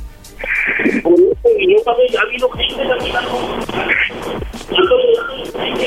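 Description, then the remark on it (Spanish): A woman sobs and cries through a tinny, telephone-like line, her voice wavering and catching in shaky, broken bursts that stay fairly loud throughout. “No, estoy llorando. Y él sabe que nunca lloro.”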